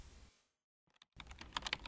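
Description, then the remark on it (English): Hard, forceful typing on a computer keyboard as someone slams out a forum message letter by letter: after a brief quiet gap, a quick burst of sharp, loud key strikes clatters, one press after another. “slammed the keyboard with each letter punched out.”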